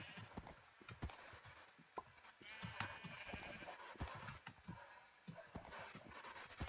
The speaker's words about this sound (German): So, das hier ist das Pferd